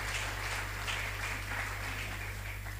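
An audience applauds steadily, a dense wash of many hands clapping at once without pause, set against a faint low electrical hum.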